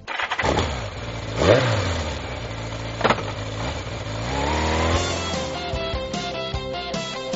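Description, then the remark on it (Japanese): A motorcycle engine cranks and starts, then revs up in loud, rising bursts before settling into a steady, throaty running drone, with no voices. “バイク、振動中物語。”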